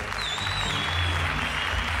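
A crowd applauds steadily, dense clapping at an even, moderate loudness with a faint high whistle-like tone drifting over it early on.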